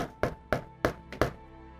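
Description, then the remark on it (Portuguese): Four firm knocks on the wooden door of Radagast's little cabin in a role-playing game, in a steady, evenly spaced rhythm, clear, with a soft fifth tap trailing after. No one speaks. “Eu bato na porta.”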